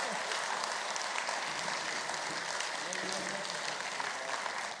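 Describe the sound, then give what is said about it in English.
A sustained wash of audience applause for a team, dense and steady for the whole stretch, many hands clapping together at an even loudness with no single claps standing out. “Would you give this team a, a applause, please?”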